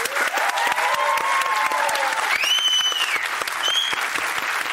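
Steady audience applause, a dense crackle of many hands clapping at a constant loudness, with a few brief whistle-like tones rising over it partway through.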